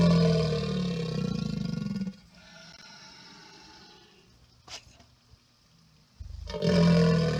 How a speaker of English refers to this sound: Is it a frog? Is it a green frog? Yes, it is a green frog and is happily croaking.